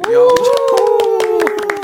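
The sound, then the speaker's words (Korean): A brief burst of hand clapping from an audience, with several voices giving a short, rising cheer over it, lively and fairly loud throughout; the applause and small cheer are called for just before a singing performance. “자 여러분 박수와 작은 함성이요.”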